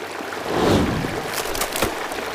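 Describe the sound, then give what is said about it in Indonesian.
Steady rushing and splashing of a flowing river current sweeping a nest away, a broad continuous wash with a few brief sharper splashes, fairly loud and alone without any voices. “Oh, tapi, ya, hanyut terbawa arus air sungai.”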